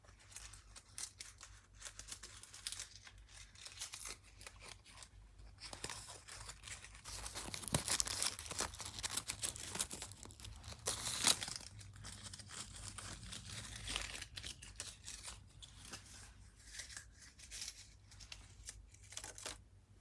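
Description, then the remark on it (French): Continuous crinkling and rustling of leaves, with dense crackly bursts that swell louder around the middle before settling back to softer rustles. No voices. “Je préfère les feuilles à l'eau qui coule.”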